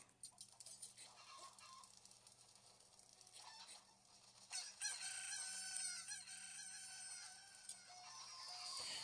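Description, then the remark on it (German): Chickens in a video game cluck and crow in a busy, overlapping chorus as many of them attack the player, with sharp repeated calls building in density toward the end over a steady electronic hum. “Ah, jetzt greifen mich die Hühner an. Ah, jetzt kommen auf einmal richtig viele Hühner.”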